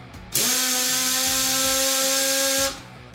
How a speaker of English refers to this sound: Drill. Drill.